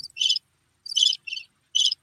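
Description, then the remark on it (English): Crickets chirping in four short, shrill bursts with brief silent gaps between them, clear, with no one talking. “Or let me see some long ass crickets.”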